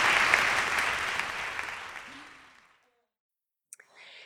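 A crowd claps steadily for a couple of seconds for two people who came up on stage, the applause thinning and fading out, followed by a brief silence and a few faint clicks.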